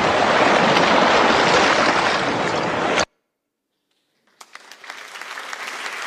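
Loud, dense studio audience applause on the show Musiculturum that cuts off abruptly into a second of silence, then returns softer and patchier, with individual sharp claps standing out from the crowd.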